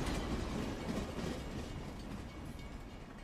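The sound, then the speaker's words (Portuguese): A train rolls steadily along the rails, a dense rumbling roar with a faint clickety-clack running through it, slowly easing off in loudness. “A conversa tá boa, mas nossa viagem pelo Agreste nesse trem virtual do forró tá chegando ao fim.”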